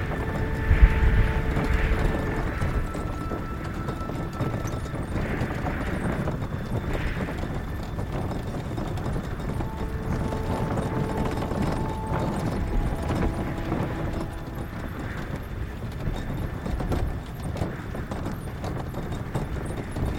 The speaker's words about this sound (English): carriage creaked back and forth as it slowly crawled up the windy, snow covered avenue leading up to the estate.